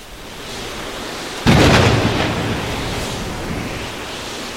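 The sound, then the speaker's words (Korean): Heavy typhoon rain lashes against windows, echoing through an empty corridor, in a dense, steady roar that swells suddenly partway through, like a gust driving the downpour harder, then stays loud and unbroken with no voices. “희미한 컨테이너 안에서 미화원들이 비밀 모임에 대한 결의를 다질 쯤 태풍이 불어닥쳤다. 창문을 때리는 빗소리가 텅 빈 복도에 메아리를 만들며 울려 퍼졌다.”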